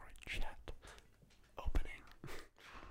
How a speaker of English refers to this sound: Well, in that case, we I think ought to well crack open our beers. Yeah, let's, let's go get for these it. guys open. Oh, once again, beautiful ASMR.